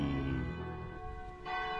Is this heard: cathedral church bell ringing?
yes